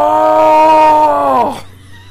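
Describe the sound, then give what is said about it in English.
A person does a loud, drawn-out mock dinosaur roar, one sustained voiced growl lasting over a second before its pitch drops and it cuts off. “I hope you enjoyed the sound effects.”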